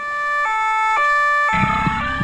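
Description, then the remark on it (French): A loud two-tone police siren wails in alternating high and low notes, with a low vehicle rumble growing beneath it partway through as it passes. “Il ne faut pas en vouloir à Milos, il est toujours inquiet quand il entend la police.”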